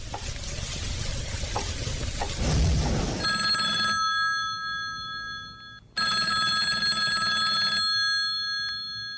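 A sizzling, frying sound fills the first few seconds, then a telephone rings in two long bursts of steady, high, tonal trilling separated by a short pause.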